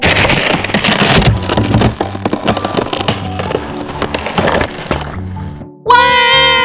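Ice cracking apart in a loud, dense barrage of sharp snaps and splintering crackles over a low rumble for several seconds, breaking off into a brief pause before a bright, sustained tonal sound.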